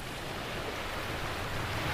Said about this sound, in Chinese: 远处，海浪哗哗的喧响，仿佛在一遍遍的重复着长帆的话： 永远不可能离开，永远不可能离开。